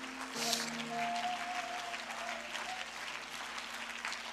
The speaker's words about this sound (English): Would you clap your hands and would you rejoice one more time?